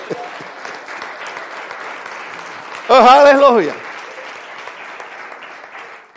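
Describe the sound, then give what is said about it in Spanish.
An audience claps steadily for several seconds, giving applause to God, a dense, even patter of many hands; midway a voice briefly calls out loudly over the applause before it continues. “Dale el aplauso a Dios y te atreves.”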